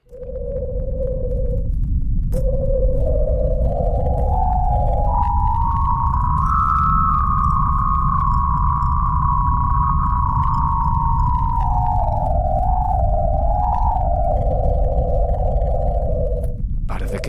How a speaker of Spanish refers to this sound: A ver, vamos con Venus. Vamos con Venus. Venga, esta es la sonificación de emisiones de radio grabadas por la eh, eh, sonda solar eh, Parker de la NASA, ¿de acuerdo?